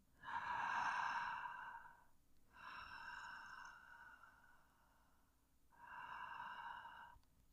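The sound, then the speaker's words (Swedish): Loud open-mouthed breaths with no talking, conscious connected breathing: a long airy sigh-like breath, then two more in slow succession, each breathed in and then released like a wave, separated by brief quiet gaps. “Sen, sen eh, finns det en annan andning som, som man kan säga både lugnar, eh, man kallar det för conscious connecting breath, där, där du an, an, faktiskt andas med öppen mun.”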